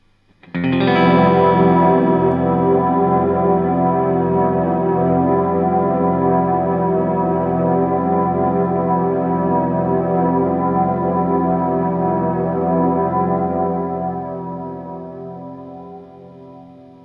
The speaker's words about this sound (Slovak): reverb vlastne vytvára umelo nejaký, nejakú miestnosť alebo priestor budovu, kde sa vlastne zvuk, kde je zvuk vlastne veľký v tom priestore, kde sa to odráža, kde má priestor, kde plynúť. Môže byť veľký malý, záleží, čo chceme dosiahnuť.